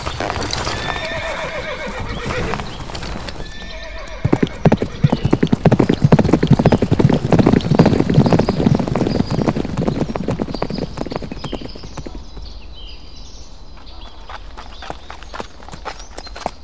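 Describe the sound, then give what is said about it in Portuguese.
A horse whinnies near the start, then many hooves clip-clop in a dense, rapid rhythm as mounted men set off together on horseback, loud before gradually thinning out toward the end. “Homens, todos montando. Preparem-se, iremos partir.”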